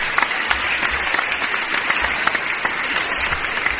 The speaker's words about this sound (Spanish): Esto se merece, yo creo, un aplauso, la verdad.